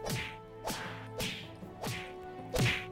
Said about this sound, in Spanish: Se vieron las caras por fin y empezó una gran pelea épica entre el infierno y la tierra. Se escuchaban los golpes a lo lejos.